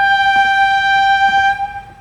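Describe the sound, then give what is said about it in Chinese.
A train horn sounds one long, steady blast, a loud, bright chord of several tones that holds for about a second and a half and then fades out, with no voices, as the train turns onto its return journey. “呜的一声，火车转向了返程的路途，把一列列金光闪闪的梦，再向那个看不见尽头的海之彼端，伴随着柴油的气味与东北角海浪的浪涛声，带着人们到了一个很远、很远的地方。”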